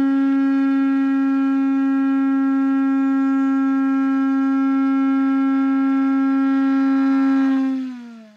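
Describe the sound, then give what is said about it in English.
A shofar blown in one long, steady, brassy blast with rich harmonics, held loud for about seven seconds before the pitch sags and the note fades out. No one speaks over it. “when I do my declarations at the end, I blow my shofar. So here's my shofar.”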